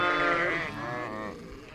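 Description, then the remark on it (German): Sheep bleat, one long quavering bleat sliding into a second, shorter call, with other flock sounds faintly underneath and no talking. “Die Schafe bekamen dann nochmal Leckerlis, das gibt es eben auch für Schafe.”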